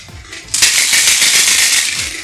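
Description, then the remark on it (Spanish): Five dice for the game of cubilete being shaken, mixed and rattled, a soft scattering at first, then a loud, steady, bright clatter of many quick clicks that continues without a break to the end. “Son dados. tu pinche, los dados. Entonces los, los mezclas y.”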